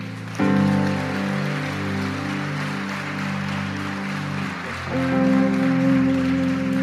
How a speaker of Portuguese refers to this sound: Amém, amém e amém. Aplauda o Senhor.